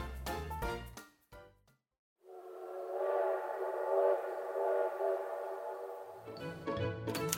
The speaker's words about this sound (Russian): Наконец он подошел. На локомотиве флаги и гирлянды. Через пару минут поезд отправился дальше.